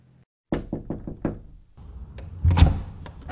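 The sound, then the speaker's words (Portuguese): A quick, firm run of about six knocks on a door, followed by the door being opened with a rattling, shuffling clatter. No one speaks. “A discussão foi interrompida por alguém batendo na porta.”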